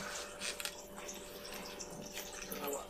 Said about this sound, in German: Hier, gieß mal ein, Hermann. Ich gieß mal ein